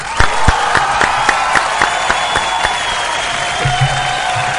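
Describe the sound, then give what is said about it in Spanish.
A crowd applauds steadily for several seconds, a loud, dense wash of many hands clapping together with a few sharper claps standing out and a faint murmur of voices underneath, applauding the absent Nicolás Reyes. “Aplauso para él.”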